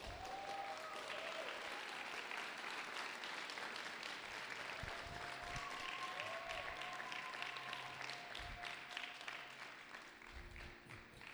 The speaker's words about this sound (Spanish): un aplauso al Señor porque